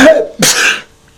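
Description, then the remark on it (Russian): A single loud sneeze: a short voiced intake builds up, then a sharp, breathy burst of air that trails off quickly into silence. “Кстати, знаешь ли ты, что при чихании все функции организма останавливаются, даже сердце.”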